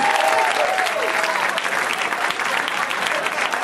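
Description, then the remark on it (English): A crowd applauds steadily and loudly as comedian Bobcat Goldthwait is introduced, a dense wash of clapping that holds at an even level for several seconds, with a few faint cheers mixed in. “Give it up for Bobcat. Come on!”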